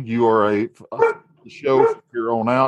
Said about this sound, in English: I'm sorry about my dogs, but uh, there's a neighbor obviously walking their dog